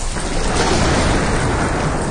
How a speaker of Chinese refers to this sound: 谁知道我们一上船，突然就风雨交加，开始下雨了。